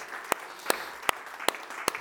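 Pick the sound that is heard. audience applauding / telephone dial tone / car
audience applauding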